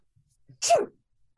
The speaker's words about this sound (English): I heard you sneezing.